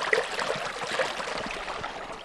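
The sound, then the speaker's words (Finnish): A shallow, very clear stream with a hard stony bed burbles and splashes steadily over rocks, with a continuous bright gurgling texture and small irregular splashes throughout; a few marsh marigolds bloom beside it; no one speaks. “Nyt ollaan purossa siis ja tässä kukkii muutama rentukka ja aika hyvä lotina.”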